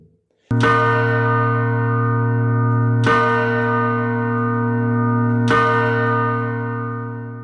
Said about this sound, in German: Schlagen einer Glocke, das ist der Stundenschlag. Dang, dang, dang. 3 Uhr.